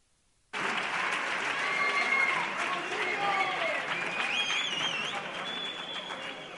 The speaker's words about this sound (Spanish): Señoras, señores, por favor, reciban con un fuerte aplauso a la Chirigota 3C, tu radio en sintonía chirigotera.